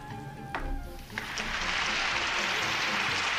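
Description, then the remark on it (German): A canned applause sound effect: dense, hissing clapping swells in after a brief tonal intro with a couple of sharp hits, then continues steadily and fairly loud to the end. “Warum habe ich eigentlich keinen Applaus gekriegt?”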